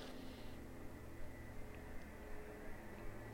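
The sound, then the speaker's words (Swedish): A small propeller plane drones faintly, a steady low hum with a slight engine whine over quiet outdoor background noise, and nobody talks. “Nu kommer det ju ändå ett flygplan. Jag undrar vad det är för ett flygplan. är ett litet propellerplan låter det som.”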